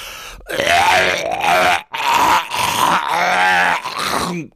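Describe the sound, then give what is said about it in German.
A voice loudly imitates a man retching and gagging, with harsh, guttural heaves in three long bursts separated by brief gasps. It is strained, with no ordinary speech. “Und allein als er dieses Geräusch gemacht hat, ne, musste ich fast auch würgen.”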